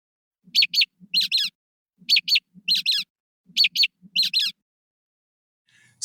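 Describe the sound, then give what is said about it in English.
A mockingbird mimics calls: sharp, high chirps in quick pairs and short clusters. The first two notes imitate an American robin's alarm call, the third and fourth a brown-headed nuthatch's 'rubber ducky' call. The pattern repeats three times at a steady rhythm with no voices. “So the first two notes came f- eh, from a mockingbird imitating the alarm call of an American robin.”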